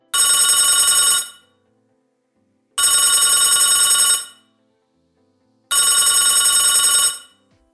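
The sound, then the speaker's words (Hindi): A telephone bell rings three times in a steady pattern in a police station at night, each loud, bright ring lasting over a second, separated by short silent gaps. No voices are present. “वो आंखें बंद करके सुस्ता ही रहे थे तभी फ़ोन की घंटी की आवाज़ से पुलिस स्टेशन गूंज उठा”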